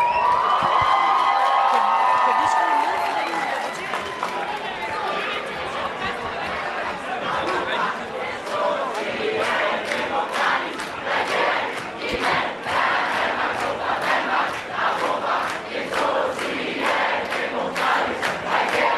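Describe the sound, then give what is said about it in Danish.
A large crowd of DSU members in a lobby hall shouts and chants continuously, with rhythmic thumping from many people jumping; the noise is loud, dense and sustained throughout, with overlapping voices and cheers. “Det, er surne, der står og hopper og råber.”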